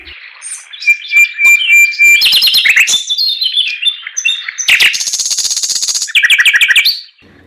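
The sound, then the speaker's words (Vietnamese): A hwamei songbird sings a bright, varied song of rapid whistled trills and warbling phrases, loud and close, with short pauses between bursts and no voices. “Quả là chim họa mi vừa cất giọng hát, tiếng hát véo von lay động, muôn thú đều lắng nghe.”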